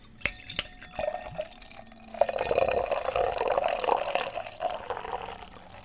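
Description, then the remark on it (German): Beer glugs and streams from a freshly opened bottle, wrapped in thick packing paper, into a glass, starting with a few drips and clinks before a steady, foamy pour that continues for several seconds with no talking. “Und lasse das jetzt mal in mein Glas laufen.”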